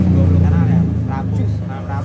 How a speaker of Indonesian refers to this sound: itu motor apa anjing bunyi kayak gitu